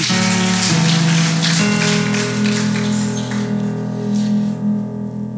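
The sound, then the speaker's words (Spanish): An audience applauds the Lord with a dense, steady crackle of many hands clapping, loud and continuous over sustained, low musical chords, with no voices speaking. “Dele un aplauso al Señor, tome asiento.”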